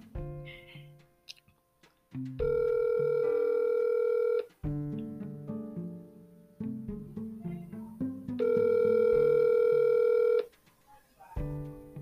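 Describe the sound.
An outgoing phone call ringing on the line: two long, steady ringback tones about six seconds apart, with muffled voice-like chatter and clicks between them.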